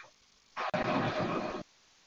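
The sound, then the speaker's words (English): A loud burst of crackling static on a phone line cuts in abruptly, hisses harshly for about a second, then drops out, leaving only faint line noise behind. “Yeah, there's a lot of static going on.”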